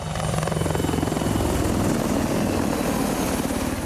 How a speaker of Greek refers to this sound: Επιθετικά ελικόπτερα της αεροπορίας στρατού έχουν χτενίσει την περιοχή για να ξεκινήσει η επιχείρηση απόβασης.